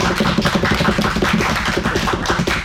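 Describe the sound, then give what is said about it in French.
The studio audience of the TSF Jazz show Daily Express applauds: a dense, steady patter of many hands clapping together, fairly loud and even throughout, with no voices over it. “Et je précise quand même, parce qu'on l'a pas dit depuis le début, que cette émission est en public, la preuve, on peut tous s'applaudir.”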